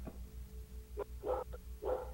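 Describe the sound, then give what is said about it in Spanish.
Three short, muffled barks in an uneven rhythm over a low steady hum with no talking. “Nomás soy su perro, ¿no? Su can.”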